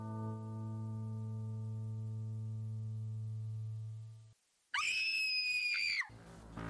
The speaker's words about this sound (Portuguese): Antes do, do sol nascer, um grito vindo do quarto